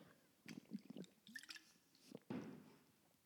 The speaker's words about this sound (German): ich muss schon mal, mal einen Schluck Wasser nehmen